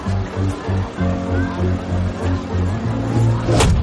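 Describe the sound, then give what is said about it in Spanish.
A police patrol car's engine rumbles, its low drone pulsing in a steady rhythm before swelling slightly louder at the end as the car pulls up and stops near a high school. No one speaks. “El coche patrulla para cerca del instituto.”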